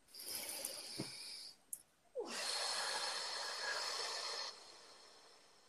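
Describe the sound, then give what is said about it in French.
A deep breath taken as part of an affirmation exercise: a loud, airy inhale, a brief pause, then a longer, steady, breathy exhale that stops abruptly. No one speaks. “Alors on va sur une affirmation pour ça, une respiration.”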